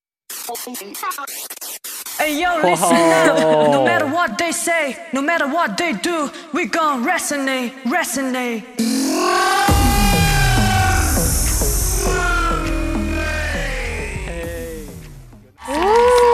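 A cover song begins with a few sparse notes, then rhythmic rap vocals come in, loud and steady, before shifting to a fuller, sung section with longer melodic lines over the backing track.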